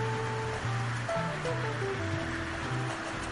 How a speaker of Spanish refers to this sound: que repiquetea en los alféizares de las ventanas. Cómo arrecia la tormenta en este lunes 27 de abril de 2020.